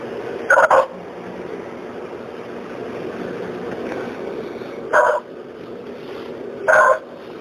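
A dog barks three times in short, sharp bursts: one early, then two more close together near the end, each standing out loudly over a steady low background rumble.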